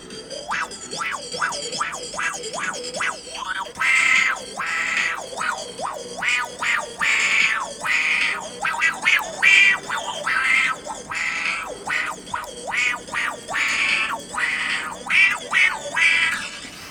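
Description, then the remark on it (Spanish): A rapid series of warbling, vowel-like wah-wah sweeps, made by a mouth shaping sound from a small phone speaker, rising and falling rhythmically and fairly loud, with no talking over it. “Y pues eso tal cual soy yo, pues con la bocina del celular y moviendo pues mi boca para que suene ese efecto, pues es más o menos lo que hace, ¿no?”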